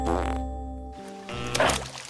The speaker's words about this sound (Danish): Lyden af en prut.